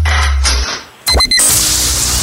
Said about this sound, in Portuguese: Ora, eu penso que seja abrir uma escada. Um escadote.